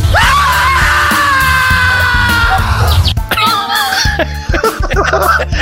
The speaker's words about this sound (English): I hope you have audio of his scream. Absolutely, his scream. He, he sees all you see is the feet of, of you know the body, but apparently her head is missing, and you get this.